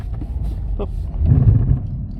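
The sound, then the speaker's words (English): Steady low rumble of road noise from inside a moving car on a slippery road, swelling louder midway as if accelerating, with a brief faint click early on and no clear voices. “And I was going to do this one in the car.”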